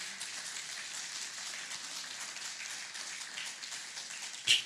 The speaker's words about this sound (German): Lass uns einen Applaus dem Herrn Jesus allein geben.